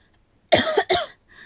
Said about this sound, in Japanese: 咳がね近づいてきてるよね徐々に出てきてる